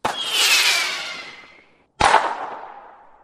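Two loud firecracker pops about two seconds apart, each a sharp crack trailing off into a long, hissing, ringing decay. No voices are heard.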